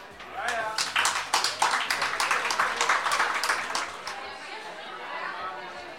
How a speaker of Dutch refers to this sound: Dames en heren, mag ik een heel hard applaus voor Gerda Blees.